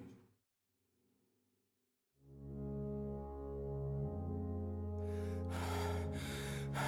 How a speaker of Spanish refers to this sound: La respiración entrecortada del anciano no dejaba lugar a dudas que los muchos años de fumador recalcitrante le habían finalmente pasado la cuenta.